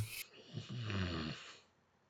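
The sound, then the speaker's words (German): A person lets out a low, rough growl of displeasure lasting about a second, fairly loud, after a brief breathy burst, then it trails off into quiet. “Ich hoffe, man hat das Knurren von mir gehört.”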